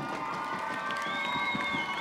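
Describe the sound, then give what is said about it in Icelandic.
A crowd claps and cheers steadily to welcome a band onto the stage, dense applause mixed with high whoops and shouts, a sustained whistle-like cheer rising above the noise. “Ég ætla að byggja um að klappa fyrir þeim, taka vel á mótið þeim, klappa þau upp.”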